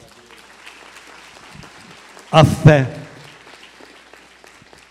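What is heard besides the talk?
audience applause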